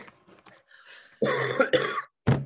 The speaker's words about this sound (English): Oh, oh, Boys, he's got, and ladies out there, he's got that frat cough.